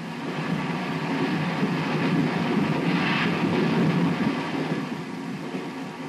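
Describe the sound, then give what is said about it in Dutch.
A luxury passenger train with compartments for 114 passengers rumbles steadily along the rails, a continuous loud rolling roar with faint rhythmic clatter, with no voices. “Ga mee op de mooiste treinreis van Europa!”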